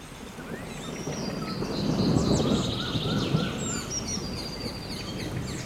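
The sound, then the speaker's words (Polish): Rainforest ambience with a steady low rumble of rain or thunder, layered with many overlapping bird calls, chirps and whistles high above, continuous and fairly soft, with no voices. “Tak, na początku chciałabym podłożyć dźwięki lasu deszczowego, czyli taki zwany rainforest sounds.”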